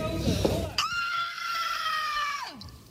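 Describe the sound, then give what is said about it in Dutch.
A single long, loud scream from a person letting out anger and frustration, held steadily for almost two seconds before it cuts off abruptly. “Zal ik eerst even gillen”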